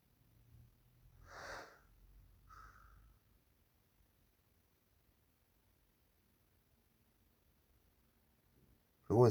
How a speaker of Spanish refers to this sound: la respiración.